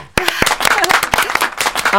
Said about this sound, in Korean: 야, 우리 병원 개원 이래 무수면 대장 내시경을 이래 잘한 환자는 없었습니다. 잘하셨습니다. 박수 드립니다.